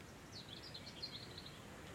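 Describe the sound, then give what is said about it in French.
Faint birds chirp in scattered short calls over a steady outdoor wash of wind noise along a long path on a grey day, with no one talking. “J'entends des oiseaux.”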